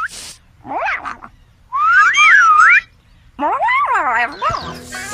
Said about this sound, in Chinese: 仔细听好了，我一吹口哨，你就跑过来，记住了吗？